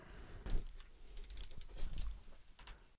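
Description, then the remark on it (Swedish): Scratchy scribbling of pens on paper as people sign a contract, quick irregular strokes overlapping for a few seconds with no one talking. “att ni skriver på här nu då”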